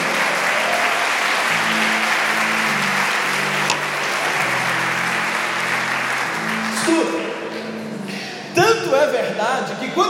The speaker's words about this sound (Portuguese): Tanto é, pode aplaudir Jesus bem forte, irmãos.